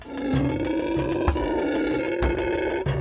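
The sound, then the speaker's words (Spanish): A black howler monkey in Tabasco, Mexico, howls in a deep, continuous, guttural roar that stays loud for a few seconds, with no pauses and no voices. “Hace un par de meses fuimos a Tabasco a recolectar muestras de uno de los tres monos mexicanos, el zaraguato negro.”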